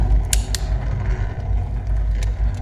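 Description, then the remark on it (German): A revolver cylinder clicks into place: two quick sharp metallic clicks, then a single later click, over a steady low mechanical rumble, with no voices. “Die einrastende Revolvertrommel.”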